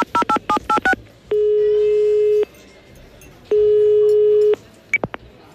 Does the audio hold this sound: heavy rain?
no